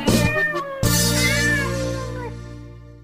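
cat meowing

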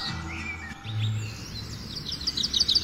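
birds chirping

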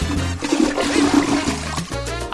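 toilet flushing

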